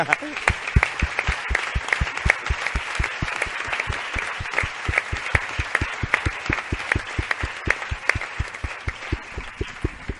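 An audience applauds steadily for about ten seconds, the clapping fairly loud with a strong, regular pulse, as if many hands are beating in near unison throughout.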